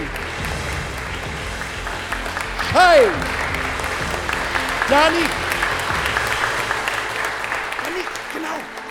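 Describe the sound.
Steady audience applause, a dense continuous clatter of clapping throughout, with cheering voices and whoops rising above it briefly a few times.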